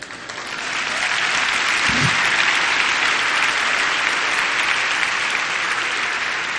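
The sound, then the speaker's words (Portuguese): An audience in a church breaks into loud, sustained applause, dense clapping that swells within the first second and holds steady to the end, with a brief low thump early on. “Vai ter um aplauso.”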